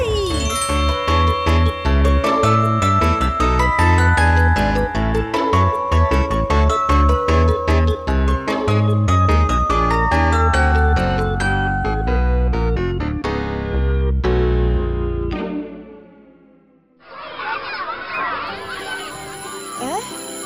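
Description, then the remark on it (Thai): A bright, tinkling school bell chime plays a rapid repeating melody for about fifteen seconds, loud, signalling that it is time to go to class, then cuts off and gives way to a busy murmur of background noise. “เสียงออดดังแล้วต้องไปเข้าเรียนแล้วล่ะค่ะ”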